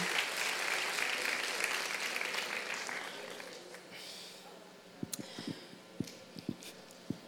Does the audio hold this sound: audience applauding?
yes